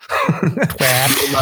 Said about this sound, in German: Gesundheit.